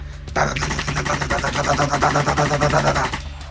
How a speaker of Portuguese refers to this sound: Você vê que o Dila ele afasta o, o terno dele, ele pega o que seria uma Uzi Bicho, ele vira pro lado, sem nem olhar, segurando o gatilho.